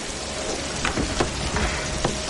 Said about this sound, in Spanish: Completamente empapada por la lluvia